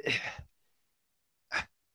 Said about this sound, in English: I don't even have the words. That's why there's some heavy breathing here. I'm trying to get my thoughts together, but I just don't want to see it.